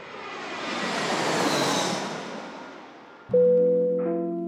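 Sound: airplane cabin engine noise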